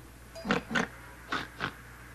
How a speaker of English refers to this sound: And that's a pig. Her name's Patty.